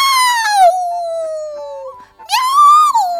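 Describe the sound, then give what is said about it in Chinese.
Wilbur the cat, rain dripping from his whiskers, meows loudly twice: a long, drawn-out meow that slowly falls in pitch, then after a short pause a second whining meow that rises and dips. No talking. “喵喵！他大声叫道：“喵”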